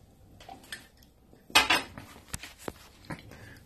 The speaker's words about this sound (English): I'm gonna get a sip of my water.